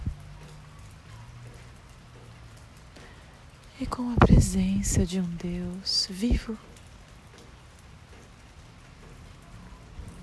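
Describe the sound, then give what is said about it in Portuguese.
Steady, soft rain hisses throughout, an even wash of falling drops, while a voice speaks briefly near the middle over it. “E eu vou finalizando o nosso encontro com a chuva.”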